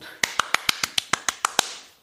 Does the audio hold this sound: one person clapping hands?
yes